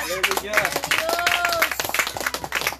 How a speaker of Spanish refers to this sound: A su nombre, a su nombre, Palmas a Jesucristo.